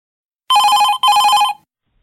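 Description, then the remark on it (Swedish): Two loud trill bursts of a telephone ringing as a prank call is placed, each lasting about half a second with a short gap between, then silence. No voices. “jag tänkte att det här är en perfekt busringning för honom.”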